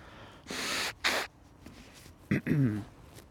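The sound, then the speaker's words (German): Someone blows their nose twice, a long harsh rushing burst followed by a shorter one, then a brief sharp sniff and a low voiced grunt; fairly loud, with no talking. “Okay, ich muss mir ganz kurz die Nase putzen.”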